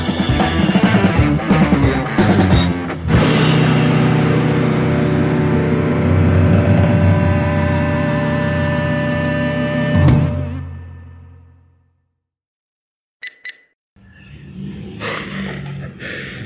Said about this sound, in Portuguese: Eu, é, acho, que tu, é, acho, acho, que vai só esperar esse carro Kombi, parado, né? a é. Kombi parada e acelerar.